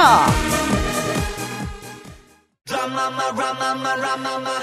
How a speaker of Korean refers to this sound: 신청곡 흐르고 있죠? 잘 들리죠?